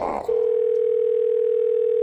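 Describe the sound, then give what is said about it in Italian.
A steady, unbroken telephone dial tone hums on a single low pitch for about two seconds, following a brief burst of voice at the very start, as a third phone call is placed to an electrician. “Terza telefonata all'elettricista.”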